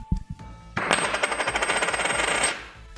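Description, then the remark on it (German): A gold coin drops onto a table from a short height, giving a bright ringing clatter of rapid bounces that spin down and fade out over about two seconds, clear. “Können Sie die einfach mal uns hören lassen, wie die klingt, mal runterwerfen auf den, auf den Tisch, wie ja, die Münze Ich mache aus kleiner Höhe, damit ich keinen Kratzer reinmache.”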